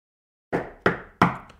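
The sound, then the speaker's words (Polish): Three firm knocks on a heavy metal door in a quick, even rhythm, each with a short resonant decay, with no voices. “Puka w drzwi.”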